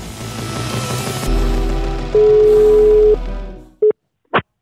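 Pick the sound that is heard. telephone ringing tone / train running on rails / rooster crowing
telephone ringing tone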